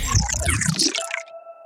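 Water splashes and gurgles for about a second as it is poured into a glass, close up, then the pouring stops and a faint ringing tone from the glass lingers.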